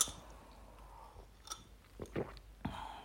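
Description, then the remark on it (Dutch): Someone takes a sip of a drink, with soft wet mouth sounds and a few small gulps and swallows spread over a few quiet seconds. “Eerst nog even een slokje.”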